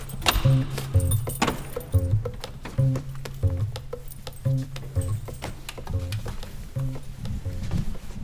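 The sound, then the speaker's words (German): Keys jangle and clink in a run of sharp metallic rattles as a door into a church sacristy is unlocked, over a steady low droning hum that pulses in a repeating pattern underneath. “Hast du auch den Schlüssel möglich?”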